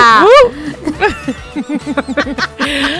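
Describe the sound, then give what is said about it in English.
A person imitates a dog with a loud, rising and falling howl-like bark at the start, followed by a quick series of short, bouncy vocal bursts and chuckles. “Wait, what does the dog do at your house?”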